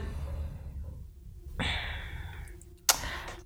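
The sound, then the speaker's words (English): A single sneeze: a breathy, rising intake of air followed by a sudden sharp burst, fairly loud against a quiet background with no talking. “I guess at this point, bless you.”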